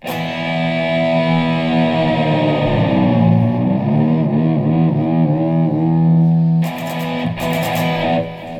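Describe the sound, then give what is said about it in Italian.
A loud, distorted electric guitar plays alone with heavy effects as a Christmas greeting for Rock and Wow, sustained notes bending and wavering before ending in several sharp, crunchy strummed chords. “auguri, auguri, auguri, grazie per la schitarrata natalizia.”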